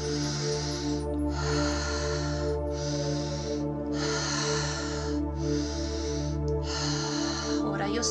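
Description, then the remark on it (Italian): Quick, rhythmic breaths pushed out through the mouth in a breathing exercise, about one forceful huff per second, clear over a steady low droning music bed. “sto respirando rapido, tu respira come ti senti in questo momento qui.”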